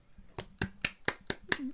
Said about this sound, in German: Haust dir gerade an den Oberschenkel? Aufs Knie. Aufs Knie, okay.